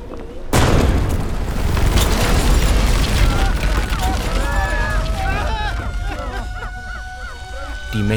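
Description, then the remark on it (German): A sudden, loud explosion bursts in after a brief quiet moment, then a heavy rolling roar continues with crackling, glassy debris and eerie whining tones that linger to the end. A blast wave blows the huge glass windows of a brick factory hall out of their frames as a fireball spreads in midday summer heat. “mächtigen Glasfenster der Fertigungshalle wurden von einer Druckwelle aus dem Rahmen gesprengt. Ein Feuerball breitete sich im Zentrum des Backsteingebäudes aus.”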